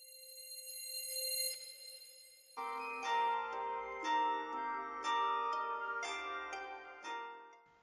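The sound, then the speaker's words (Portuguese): Plucked koto strings play a slow, unfamiliar melody of sonified protein music, ringing notes struck roughly once a second, preceded by a soft sustained tone. Clear and moderately loud, with no voices. “o principal deles foi o koto, um instrumento de cordas muito famoso no Japão”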